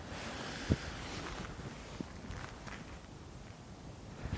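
Open outdoor ambience of a field, with steady wind rushing and rumbling against the microphone. A single soft knock sounds early on, and nobody speaks.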